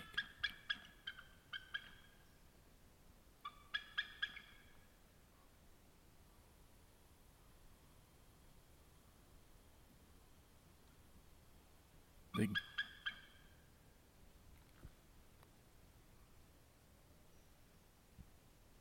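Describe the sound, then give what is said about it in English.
A bald eagle flying overhead gives bursts of high, piping chatter, quick strings of squeaky notes heard three times with quiet pauses between, clear against a faint outdoor hiss. A voice speaks briefly and softly. “Never heard a bald eagle.”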